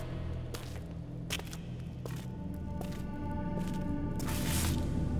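A steady, low droning vibrational hum with layered tones, coming from a nearby cavern, swelling slightly louder toward the end, with a few faint scraping clicks scattered over it.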